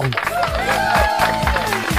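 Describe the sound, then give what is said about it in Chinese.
Audience applause welcoming the host at the opening of the comedy program Joke Big Shot Show (笑话大咖秀), a dense steady patter of clapping running for about two seconds, mixed with upbeat music carrying a rhythmic low thump and bright sliding tones. “感谢各位的掌声，掌声，掌声啊！”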